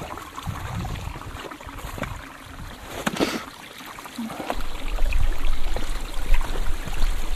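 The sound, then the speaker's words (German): A small brook high up in Mount Fields National Park, Tasmania, babbles and trickles steadily over stones, a continuous splashing wash with a deeper gurgling rumble swelling in the second half. No voices are present. “Ja, das klingt nach einem Bächlein Richtig, das war ein kleines Bächlein ähm, ganz weit oben in, äh, in Tasmanien, im Mount Fields National Park.”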